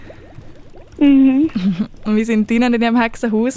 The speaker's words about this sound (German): Es blubbert, du hörst es vielleicht im Hintergrund